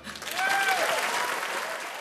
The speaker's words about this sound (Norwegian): Men da publikum klappet, ble det ikke nevnt med et ord at … ikke skal ha æren for låta alene.